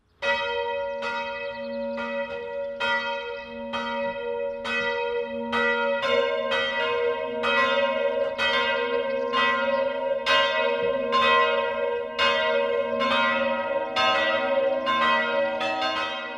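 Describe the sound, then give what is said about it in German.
Church bells in Hörmannsberg, Swabia, Bavaria, ring out steadily in a continuous 12 o'clock midday peal, repeated strikes overlapping with a rich, sustained hum that grows fuller as more bells join in. No voices are heard. “Das Mittagsläuten kommt heute aus Hörmannsberg in Schwaben.”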